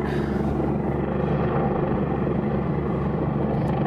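A helicopter drones steadily, its low rotor thump and broad engine roar holding at an even loudness throughout, with no voices over it.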